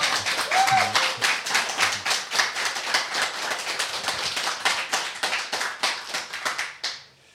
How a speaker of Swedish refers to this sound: Vi hälsar honom välkommen med en varm applåd.